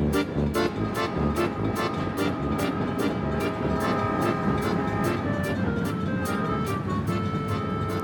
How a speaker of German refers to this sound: Nach einer eintägigen Fahrt mit dem Zug kommen wir endlich am Ziel unserer Reise an, und zwar in Bukarest, welche die Hauptstadt Rumäniens ist.